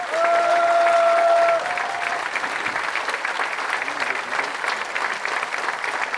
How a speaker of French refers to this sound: Ah voilà. Ça, ils ne s'attendaient pas à ça. Et vous applaudissez, et vous me faites des sourires